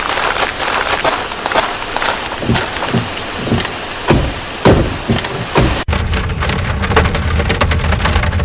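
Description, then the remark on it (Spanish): Heavy rain pours loudly in a forest as a storm comes in, with sharp spattering drops and low rumbles of thunder, then cuts abruptly to a steadier, more muffled downpour. “Uy, ¿escucharon eso? Mejor vamos al auto que se viene una retormenta.”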